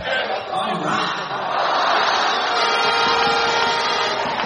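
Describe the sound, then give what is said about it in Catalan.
A large basketball crowd at the Congost arena, home of Baxi Manresa, roars and cheers loudly and continuously in relief near the end of the game, a dense wash of voices that swells slightly midway and holds steady throughout, with no single speaker standing out. “la gent, la gent despogant-se després de tants minuts de patiment. dona gust escoltar això.”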